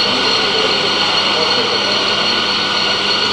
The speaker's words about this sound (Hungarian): Első. Remé- rem- ez csak a daráló volt, ugye nem a főző. Remélem, remélem jó sokat tetszettek darálni.